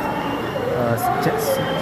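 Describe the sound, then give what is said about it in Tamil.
A full-capacity, crowded express train, a premium day train, rumbles steadily as it arrives at a station platform, with short bursts of high hiss or squeal near the end, while a man talks over the noise. “number eight வந்துட்டுருக்கு full க்ரௌடோடு வந்துட்டுருக்கு full capacity உங்களுக்கு தெரியும் buck is one of the most premium day trains and most fastest also economical”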